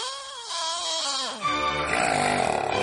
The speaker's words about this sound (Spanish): Si pasas las noches sufriendo por los ronquidos de tu pareja, tus hijos o tus papás, grábalos y mándanos el audio